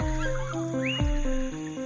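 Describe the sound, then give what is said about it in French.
A short whinny-like neigh from a rouillipus, a small prehistoric relative of the horse about 50 cm tall and 10 kg, coming out of a large clump of ferns in a hot, humid setting, with shaky stepped tones and a sharp rising squeal in the middle, heard on its own without any talking. “À part le hennissement, cette bestiole n'a pas vraiment l'air d'un cheval.”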